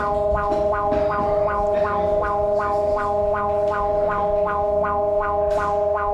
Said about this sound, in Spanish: Alerta sísmica. Alerta sísmica. Alerta sísmica. Alerta sísmica.